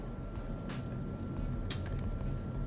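Steady, loud road rumble from a car speeding along a road, with a constant low drone and brief hissing gusts of wind or tire noise over it; no one speaks.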